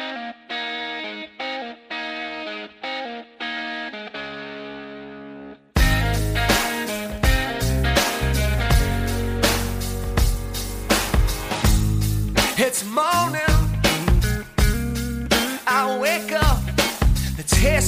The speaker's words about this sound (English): my basis for this episode was going to be this song, …. Let's take a listen.